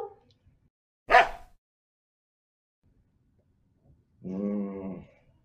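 Taro the dog gives a single full-throated bark after a brief sharp knock-like noise, with quiet stillness around both sounds and no one talking.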